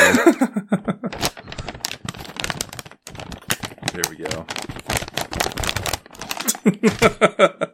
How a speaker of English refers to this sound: You know, to Attempt to like not tear paper in front of the microphone or just give gives everyone the whole ASMR experience.